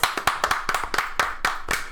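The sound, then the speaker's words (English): Steady hand clapping, about eight sharp claps at an even, fairly quick rhythm, with no talking over them. “Can we get a oh round of applause God. for the thick snow bunnies?”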